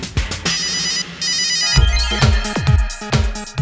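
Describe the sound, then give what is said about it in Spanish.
A Nokia 3310 mobile phone ringtone plays loud, a quick melody of bright electronic beeps with a steady, bouncing rhythm and no voices. “La telefonía celular era representada por el Nokia 3310 con el que jugábamos Viborita.”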